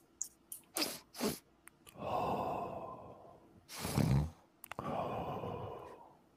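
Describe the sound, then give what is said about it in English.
A voice imitates a series of quick, sharp sniffs and breath intakes, followed by longer, breathy inhales and a forceful gasp, fairly loud with short pauses between. “Everybody hears the sniff. Several sharp intakes of breath.”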